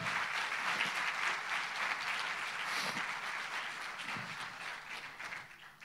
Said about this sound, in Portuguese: Amém. Pode aplaudir Jesus.